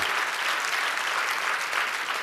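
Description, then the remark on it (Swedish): A crowd applauds steadily in praise of Jesus Christ, many hands clapping in a dense, even wash of sound that holds at a constant loudness throughout, with no voices standing out above it. “Ja, men det är värt en applåd tycker jag.”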